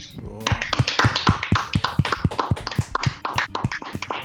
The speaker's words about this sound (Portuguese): vamos dar uma salva de palmas pro Zumba